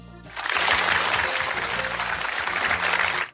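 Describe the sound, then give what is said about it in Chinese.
Steady, dense applause from many hands in encouragement of the Chinese Taipei team, starting after a brief pause, holding loud and even for about three seconds, then cutting off abruptly, with a faint low hum underneath. “爱互咱这个中华台北队这个大声的这个掌声鼓励啦吼，啊，咱破声来个吹落哦吼。”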